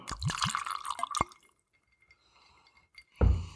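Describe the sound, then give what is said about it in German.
Liquor that smells like mouthwash glugs and splashes into a glass for about a second, then a quiet pause with faint trickles before a short clink and rattle at the end. “Dann gießen wir mal ein und schauen.”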